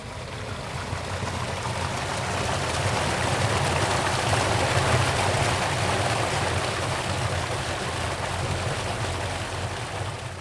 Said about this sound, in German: Ja, wir hören es, da kommt sehr viel Wasser. Es ist die Quelle, die unter dem Kloster von Saint-Maurice im Wallis entspringt. Die Mönche haben früher das Wasser genutzt, um Geschirr zu waschen, sich zu waschen, zu trinken und so weiter.